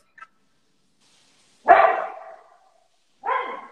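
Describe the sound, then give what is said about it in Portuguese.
A dog barks twice, with a sharp, loud first bark that trails off and a second shorter bark a moment later, with no talking. “O cachorro tá aprontando toda.”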